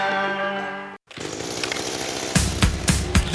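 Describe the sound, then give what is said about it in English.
The small two-stroke engine of a Weedmeister 2000 string trimmer, cranking up to cut crabgrass growing out of a driveway, idles with a steady buzzing drone, cuts out briefly, then roars back as a harsh, gritty whine with several loud revving surges. “This is your Weedmeister 2000 string trimmer, cranking up to chow down on the crabgrass growing out of your driveway.”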